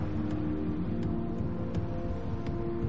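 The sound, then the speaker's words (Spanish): Steady low rumble of several cars driving along a street in traffic, a continuous engine and road drone with a few faint brief clicks or ticks on top, and no voices. “Varios coches circulan detrás.”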